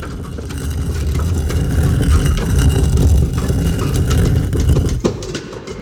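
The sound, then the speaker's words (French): The massive stone facade of the monument to Sir Georges-Étienne Cartier in Montréal grinding open like a great door, a loud, steady low rumble lasting about five seconds before ending in a dull thud. “À cet instant, la façade du monument à Sir Georges-Étienne Cartier s'ouvre comme une grande porte.”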